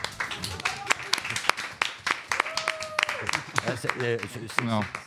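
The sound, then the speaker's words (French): A small group of studio guests claps before the editorial, sharp irregular hand claps scattered over several seconds, mixed with laughter and voices chattering underneath. “Exactement, il nous a demandé, sommé, d'applaudir avant l'édito, parce qu'après on ne sait pas.”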